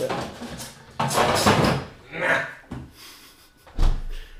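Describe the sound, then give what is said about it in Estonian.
A stiff refrigerator door that resists strongly is tugged open and pushed shut, a few scraping, rattling bursts building to a solid low thump as it finally closes. “su külmkapp äh, võitles väga jõudsalt vastu”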